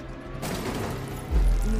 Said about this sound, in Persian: نه نه نه زلزله نبود انگار یه ماشین کوبیده بود تو در انبار بعدش هم سر صدای تیراندازی سر صدا رو میشنوی بیرون چه خبره